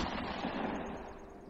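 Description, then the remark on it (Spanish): A rapid burst of several gunshots near Lake Herman, loud, the reports running together into a dense rattle that fades slightly toward the end. No voices. “El auto, al alejarse, solo escuchó varios disparos.”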